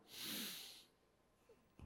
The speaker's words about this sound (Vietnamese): các bạn hít vào một hơi thật sâu nào